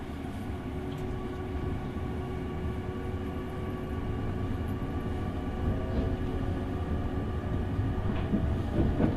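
Steady low rumble of the limited express Sonic No. 6 on the Nippō Main Line, bound for Hakata via Kokura, pulling away from Yanagigaura, heard from inside the carriage, with a faint rising motor whine and a gradual build in loudness as it gathers speed; no one speaks.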